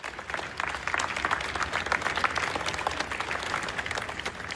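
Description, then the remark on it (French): The Russian crowd on Palace Square at the Winter Palace applauds enthusiastically as the tsar appears on the balcony at the start of the war, a dense, steady wash of many hands clapping at once with no gaps, sustained and fairly loud throughout, with no voices standing out. “Sur la place du Palais d'Hiver, il applaudit avec enthousiasme le tsar lorsqu'il apparaît au balcon.”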